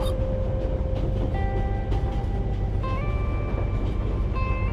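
A steady low rumble of the luxurious steam train Transvoyage Express rolling along the rails, heard from inside the carriage, with faint whining tones shifting above the constant rolling noise and no voices.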